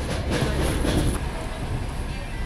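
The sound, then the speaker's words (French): A medical evacuation train with hospital beds and an intensive care section rolls steadily along the rails with a dense, continuous rumble and faint rhythmic clatter, with brighter hissing bursts in the first second. “Voilà ce que disait un des passagers de ces trains arpentés par des soignants en blouse verte.”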